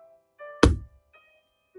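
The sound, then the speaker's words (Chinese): A single heavy, dull thump of the big bad wolf slamming his body into a brick house in a children's story, loud and low with a short decay, set against soft background music tones. “他用力的撞了一下，砖房一动也不动。”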